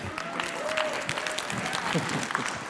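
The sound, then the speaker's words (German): A steady burst of audience applause, dense overlapping claps with a few sharper individual hits, sustained at an even level for a few seconds with some crowd murmur beneath. “Applaus”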